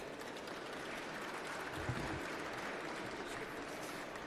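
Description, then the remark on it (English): An audience claps steadily for guest Piers Linney, a dense wash of many hands keeping an even loudness throughout with no voices over it. “Round of applause, Piers Linney.”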